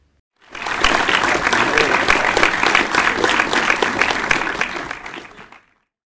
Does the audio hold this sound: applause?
yes